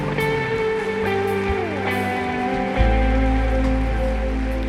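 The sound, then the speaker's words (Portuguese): An audience at a morning church service applauds in a dense, steady wash of clapping that lasts the whole stretch. Sustained keyboard chords play underneath, and a deep low tone swells in partway through. “Quem crê e recebe, diga glória a Deus e dê uma salva de palmas, em nome de Jesus.”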